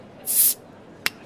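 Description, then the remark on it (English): A bottle being popped open: a short burst of bright, airy hiss like fizzing gas, followed a moment later by a single sharp pop. Fairly loud, with no voices. “Well, sit back, relax, pop a bottle.”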